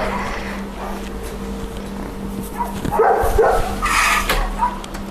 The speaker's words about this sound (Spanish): voy a cerrar la ventana porque mi querido vecino perro Tango está ladrando